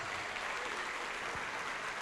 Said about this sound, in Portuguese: Você vai ficar firme no caminho, você vai ficar firme na aliança, você vai ficar firme no testamento e vamos aplaudir mais ao Senhor Jesus.